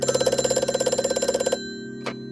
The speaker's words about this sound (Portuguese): Durante a limpeza, o telefone tocou.